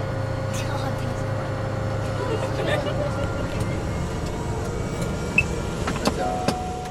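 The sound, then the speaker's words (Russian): Steady, loud droning of a Cessna light aircraft engine heard from inside the cabin during a flight to the shore of Lake Turkana, on the Kenya–Ethiopia border in Africa, a constant low hum with a tonal whine, broken by a few sharp clicks near the end. “Это звук легкомоторного самолета Cessna, на котором я лечу на берег озера Туркана.”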